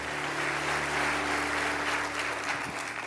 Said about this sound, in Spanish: A ese aplauso, esto está pasando en River, que ese aplauso se mantenga para recibir al resto del mundo.